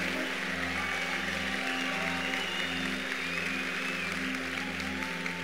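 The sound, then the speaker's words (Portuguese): A large audience at the Dunamis conference claps steadily and loudly for the volunteers, a dense, unbroken wash of hand claps that holds at an even level for several seconds with no one speaking. “Vocês poderiam dar uma salva de palmas a todos os voluntários, que são os primeiros a acordar e os últimos a dormir.”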